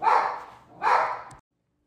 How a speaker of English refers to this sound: See, the dogs agree. The dogs agree. we have dogs over here, guys, and they agree.